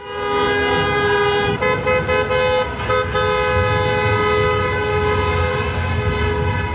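A dense chorus of car horns blares continuously in the streets of Frankfurt as people celebrate Eintracht after a football match in Sevilla. Many overlapping sustained honks at different pitches sound loud and unbroken over a rumbling street backdrop, with a few brief dips in the din.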